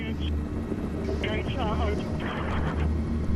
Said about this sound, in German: Zwei Helikopter steigen in die Luft. Drin schwer bewaffnete Eliteeinheiten der Polizei trainiert, um Terroristen zu jagen.